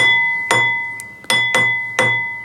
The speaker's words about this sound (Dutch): De pendule slaat nog enige keren.